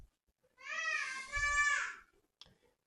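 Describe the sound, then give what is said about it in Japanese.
A young child, the younger sibling being picked on by the older one, lets out a single drawn-out crying wail, about a second and a half long, high-pitched and tonal, followed by quiet and a faint click. “なんか、上の子が下の子をいじめてるようですね。泣いております。”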